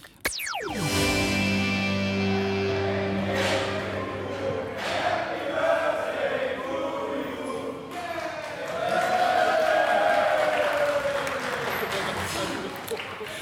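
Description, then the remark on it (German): A steady wash of crowd chatter at a group's first fan meeting, many overlapping voices blending into a continuous murmur at moderate loudness, with occasional brief louder bursts and a sharp knock at the very start. “Ja, das, was ihr gerade im Hintergrund hört, äh, dabei war Witz Wissen, das ist, äh, ja, wir befinden uns gerade bei der Group.”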